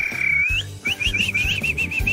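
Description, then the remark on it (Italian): A world whistling champion whistles a bright goldfinch imitation on RTL 102.5 radio: a sustained high tone, then a rapid series of trilling, warbling notes, loud over a low background rumble. “Campione mondiale di fischio, ma proprio. Ma, ma anche alle... di imitazione del cardellino!”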